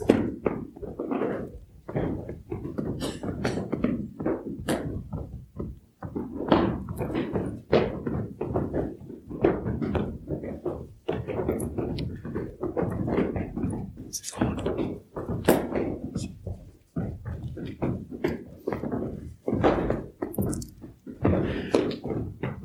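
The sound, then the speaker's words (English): Heavy feet stomp on a floor again and again, each dull, low thud landing at an uneven, steady pace with brief pauses between some of the stomps. “You can pause between stomps.”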